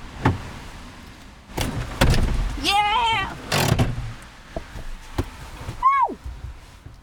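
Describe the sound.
Someone climbs into a car named Castiel: a few sharp clunks and rustling movement, a short strained vocal sound, then a solid door thump, followed by a brief exclamation and quieter clicks.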